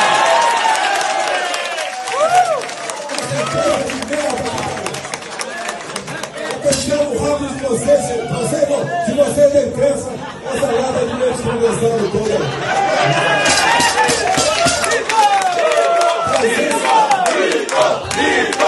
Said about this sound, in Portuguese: Pois é, Ernesto Araújo estava do lado do presidente aí, rindo, aplaudindo e fazendo coro de mito. Ah, e todo mundo aí sem máscara, incluindo o Ernesto.